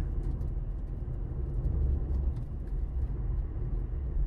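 A steady, low engine rumble fills the cabin of a moving car on a long drive, a continuous droning hum heard from inside with no voices.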